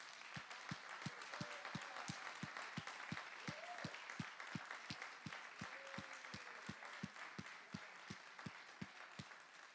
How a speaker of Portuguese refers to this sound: E se você crer que vai ser uma semana, que o Deus que você tem crido vai fazer muito mais, bata palmas para Jesus.